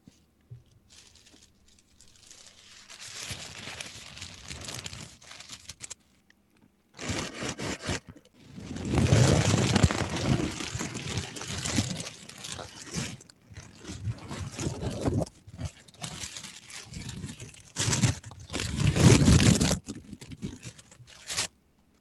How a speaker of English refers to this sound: Was that tissue? Tissue paper.